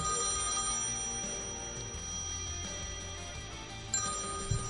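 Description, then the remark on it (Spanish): A telephone rings steadily for an incoming call with a bright, sustained electronic bell tone, heard on its own with no one speaking, a soft low hum underneath and a brief click near the end. “Hola, a ver que suena el teléfono.”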